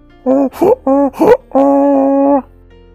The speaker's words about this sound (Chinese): 狐狸沿着小路溜达过来时，驴从灌木丛后跳出来，发出震耳欲聋的吼声。